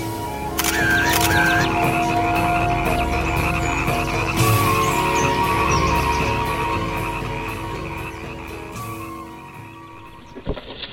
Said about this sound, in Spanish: Me despido de todos y todas desde mi humedal preferido. Oh, acabo de ver ranas bonitas. Les voy a tomar fotos. Uy, ¿se me van?